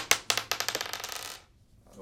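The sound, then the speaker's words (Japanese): Dice tumble across a hard tabletop, a quick run of sharp clattering bounces that speed up and fade into silence after about a second and a half. “じゃあラストですね3つ目いきますではサイコロ振ります”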